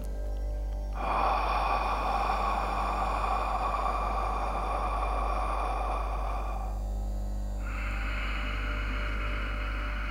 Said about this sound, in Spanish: una inhalación por la nariz y una exhalación por la boca generando así un ciclo en el que vamos a respirar durante tres minutos. El pranayama se realizaría así.